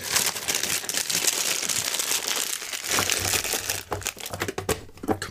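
Dense crinkling and rustling of large double tea bags in paper packets being handled and packed back into a tin, fairly loud, continuous for several seconds with a few sharper rattles near the end.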